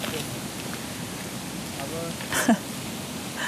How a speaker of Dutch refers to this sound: Ach ja, je hoort het. Ik zit hier echt aan de beek. Mijn favoriete plekje.